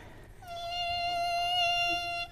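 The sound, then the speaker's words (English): A child's voice holds a thin, high, steady buzzing tone for about two seconds, imitating a mosquito whining. It's fairly loud and stays level, with no talking. “Oh, that's a perfect mosquito. I thought there was one right in my ear, right? It's that really, really high sound.”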